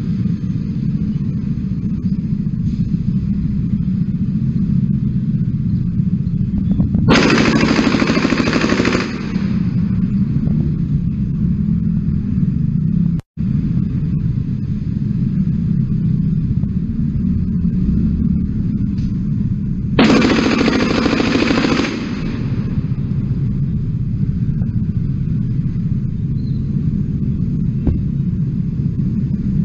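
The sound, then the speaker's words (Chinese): Two separate bursts of rapid machine-gun fire, a gang's 42 shots in a city in Taiwan in broad daylight, each lasting about two seconds, crackle loudly over a steady low rumble of street traffic. No one speaks. “我很难想象此时此刻的台湾竟然有帮派可以在城市用机关枪扫射四十二枪。”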